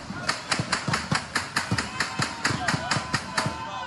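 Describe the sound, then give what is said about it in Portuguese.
Rapid bursts of automatic rifle fire by drug traffickers at the turn of the New Year in Morro da Mineira, central Rio de Janeiro, Brazil, a steady stream of sharp cracks about four or five per second, echoing over a noisy background. “Esse vídeo, feito por moradores do Morro da Mineira, região central do Rio, mostra as rajadas de tiros de fuzis feitos por traficantes na hora da virada.”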